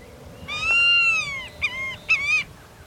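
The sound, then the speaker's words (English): A white-tailed hawk, a bird of prey, calls: a long, drawn-out nasal cry followed by two shorter, sharper notes, clear against a faint background hiss. “Otherwise, the handsome white tailed hawk is a shy bird of prey, staying a good distance from admiring observers.”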